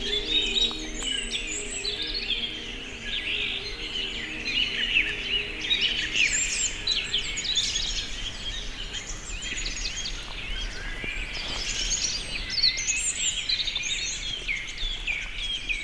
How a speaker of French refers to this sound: Une myriade d'oiseaux chantent